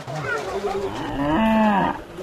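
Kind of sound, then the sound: animal, cow mooing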